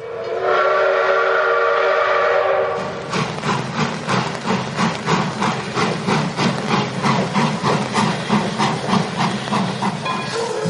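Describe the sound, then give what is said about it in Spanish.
A steam train whistle blows with a sustained, harmonic tone for about three seconds, then rhythmic chugging puffs of steam repeat steadily and loudly until the end. “súbanse en este grandiosísimo tren del mame”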